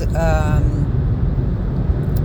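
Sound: car interior noise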